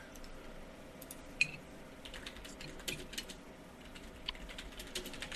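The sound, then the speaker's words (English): Quiet, steady typing on a keyboard, with irregular clusters of soft clicks and a few sharper keystrokes standing out, over a faint background hum with no talking. “Um, I am typing.”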